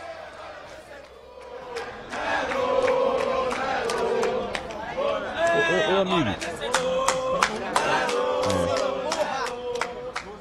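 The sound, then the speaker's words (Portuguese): A lively crowd celebrates, many voices shouting and chanting the name Nelo together with scattered sharp claps, loud and continuous, while someone speaks briefly over the din. “Muita festa aqui embaixo”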